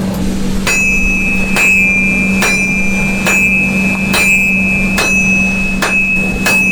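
About eight steady hammer blows forge hot metal on an anvil at a regular pace, each a sharp ringing clang, with scale flying off the metal after the first two or three blows, over a constant low hum and a thin high whine.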